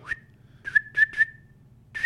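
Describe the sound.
A person whistles a run of short, sharp, high notes linked by a steady held tone, like a herding whistle, with a low hum running underneath and no talking.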